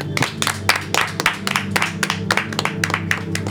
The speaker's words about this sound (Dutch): Mag een groot applaus